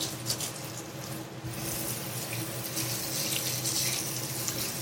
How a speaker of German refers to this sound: Jetzt habe ich natürlich in der Eile doch wieder mit den Fingern gearbeitet. Da hängen jetzt schön dick die, die Plocken dran. So, also erstmal Hände waschen.